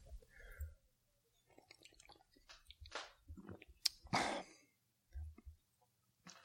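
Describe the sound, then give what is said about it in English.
Wet mouth sounds: a brief slurping sip of a microbrew beer, followed by gulps and soft swallowing thumps, with small lip smacks in between and no talking. “hold on, let me see if I can put it into better words after I take a sip here.”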